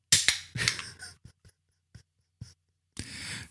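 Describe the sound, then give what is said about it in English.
A can of wine being opened: several sharp metallic clicks and scrapes from the tab, a pause with a few small taps, then a steady hiss of released pressure at the end. “I'm opening a can of wine.”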